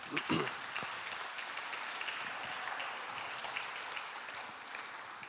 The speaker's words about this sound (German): Ja, genau, ein Applaus.